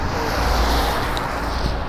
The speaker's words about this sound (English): the uh, big truck coming, so it's gonna be big noise coming. Uh, that wasn't that bad.